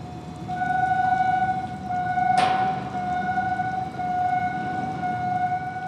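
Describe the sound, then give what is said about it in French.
A sustained, steady siren tone drones continuously over a low rumbling background at a port where dockers work, with a brief hissing burst partway through. No one speaks. “les sirènes recouvrent peu à peu les voies des dockers.”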